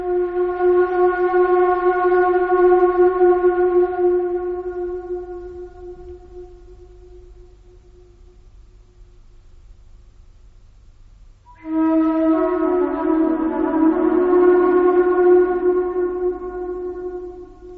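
Improvised flute playing inside the Great Pyramid: long, sustained mid-pitched notes that ring out and slowly fade in the echoing pyramid chamber, then a second, louder passage of layered, wavering tones. No one speaks.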